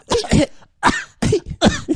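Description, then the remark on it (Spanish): A person imitates the character Jamie coughing: four rough coughs, two quick ones, a pause, then two more, loud and hacking with no talking in between. “yo como había leído un montón de teorías, creo que en Independent, de la e BBC, de que Jamie estaba vivo, pensé qué bonito sería que ahora empezara a, toser.”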